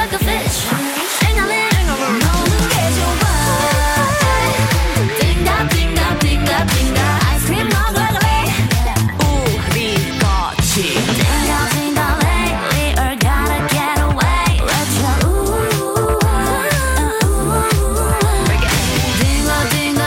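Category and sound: K-pop song playing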